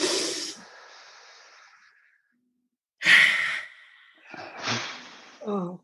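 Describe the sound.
A group of people take one really big deep breath together: several loud, breathy inhales and exhales, airy and hissing, with a long sighing release trailing off into silence, followed by more deep breaths and a brief voiced murmur at the end.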